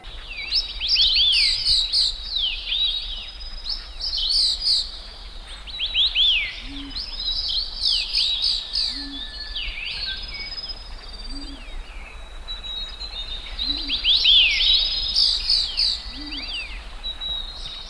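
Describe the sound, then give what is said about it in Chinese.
A mountain forest soundscape on Taipingshan, in Taiwan's mid-elevation cloud forest belt, full of overlapping high birdsong, with bright trills and chirps repeating throughout, plus a few soft low calls spaced regularly in the middle, over a steady quiet background hiss. “哎，我们来听一下这个太平山的声音，好不好？”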